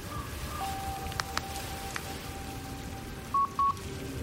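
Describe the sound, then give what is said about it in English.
A hissy, crackling phone line with a faint steady tone and a few sharp clicks, ending in two short beeping tones like a dropped call, with no one speaking. “Well, there goes the signal.”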